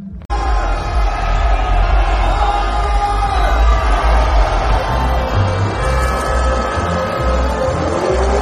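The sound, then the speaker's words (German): A large outdoor crowd of ski jumping spectators in Oberstdorf roars continuously, with overlapping cheers, yells and whoops rising at once and sustained loudly for several seconds, as fans celebrate Karl Geiger's last jump. “Und jetzt hören wir mal rein, die Atmosphäre, als der Karl seinen letzten Sprung gemacht hat.”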